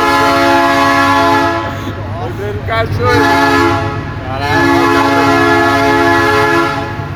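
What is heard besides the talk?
train passing with horn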